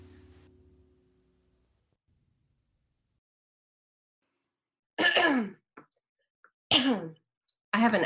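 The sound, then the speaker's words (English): After a long silence, a loud bout of allergy coughing and throat clearing comes in three rough bursts, each a harsh, gravelly hack with a strained vocal edge, separated by short pauses. “allergy cough, not a.”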